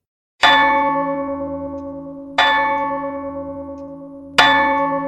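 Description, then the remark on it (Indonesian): Three loud, resonant clock chimes ring out at steady two-second intervals, each strike bright and metallic with a long, slowly fading hum that carries into the next. “Bunyi jam membuyarkan pikiran dan tubuhnya yang mematung.”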